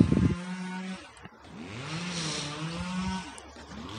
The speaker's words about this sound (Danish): Men herude i forstaden er en mand i gang med at beskære haven med en motorsav lille dreng, der står og ser på, hjælper med at fjerne grenene.